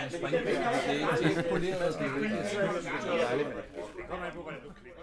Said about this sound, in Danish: Der er øh, god stemning og højlydt, højlydt snakken i baggrunden, kan man høre. Ja, det stævnet gik fra at blive øh, lidt i regnvejr til det blev lukket.